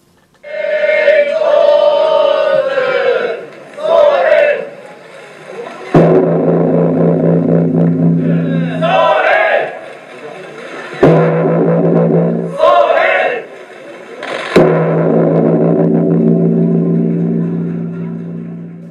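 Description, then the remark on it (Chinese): A deep Japanese temple bell tolls three times to welcome the New Year, at slow, even intervals. Each loud strike blooms into a long, low, humming resonance, preceded by softer sustained tones. “大家现在听到的是日本寺院的迎新年的钟声。”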